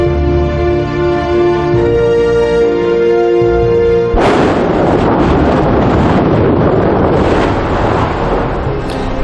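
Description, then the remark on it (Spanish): A sustained musical tone gives way to the very active Mount Etna volcano in Sicily erupting, recorded in February 2020: a loud, deep, continuous thunder-like rumble and roar that fills the remaining seconds, powerful, with no voices. “Esto que acabamos de escuchar no es un trueno, es un volcán. Es el monte Etna en Sicilia, un volcán muy activo que sonaba así hace poco más de un año, en febrero de 2020.”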